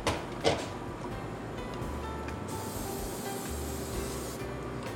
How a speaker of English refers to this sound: Give it a really good spray so that it doesn't get stuck in the pan